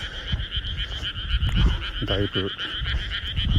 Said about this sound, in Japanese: 結構田んぼがあってカエルが間近に鳴いてる感じですね